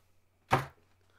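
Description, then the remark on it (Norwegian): A single heavy thump of a person slumping down onto a desk as if fainting, fairly loud, with a short dull decay against an otherwise quiet background with a faint low hum. “Det var lyden av Mathias som traff gulvet.”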